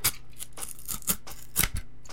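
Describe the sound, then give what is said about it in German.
Scissors snip through the seal of a Windows software box in a series of crisp, irregular cuts, several bright clicks over about two seconds, with a faint steady hum underneath. “Ich habe das Siegel durchtrennt.”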